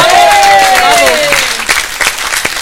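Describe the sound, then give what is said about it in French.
A burst of applause from a group for the sponsor Chrono pneu, dense clapping with a whooping voice or whistle gliding down over it at the start, then thinning into scattered claps toward the end. “On est ravis de pouvoir vous offrir cette semaine grâce à Chrono pneu bien entendu, qu'on applaudit”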